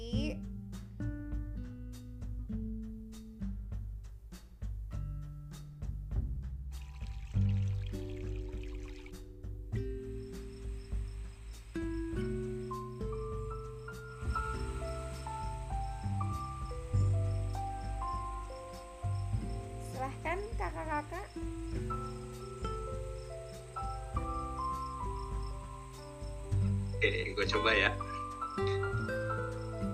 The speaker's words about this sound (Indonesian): silakan yang paling berpengalaman aku puterin lagunya ya pakai musik meditasi